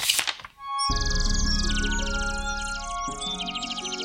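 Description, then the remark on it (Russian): A small bird in a forest chirps and trills in quick, high repeated phrases over a steady musical backdrop, following a brief soft rustle at the start; clear, with no talking. “Поймал однажды мальчик в лесу птичку”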